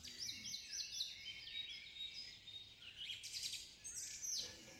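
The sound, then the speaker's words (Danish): Several birds sing their evening song, chirping continuously in a quiet outdoor setting in the evening after the rain has stopped, overlapping trills and bright whistled notes filling the air, with no talking. “Det er stoppet med at regne, og fuglene synger en dejlig aftensang.”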